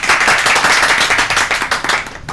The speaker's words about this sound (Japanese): 何の拍手これ？